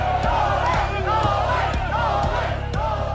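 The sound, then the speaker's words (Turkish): Thousands of Novak Djokovic fans gathered outside an airport chant in unison, loud, with a steady rhythmic pulse of voices and sharp accents roughly every half second, like clapping or stamping to the beat. “Havalimanı önünde binlerce Djokovic hayranı toplanıp tezahüratlar yapmaya başladı.”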